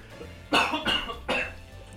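A man coughs three times in quick succession, harsh, close and fairly loud, with short pauses between bursts and no talking.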